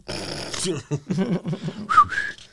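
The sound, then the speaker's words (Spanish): A person whistles a short two-note call imitating a coquí frog of Puerto Rico, a low note sliding up to a higher one, heard clearly right after some animated talking. “Por la noche tú caminas y se, en Puerto Rico y tú oye, no te, te va a ofender porque el coquita pitó.”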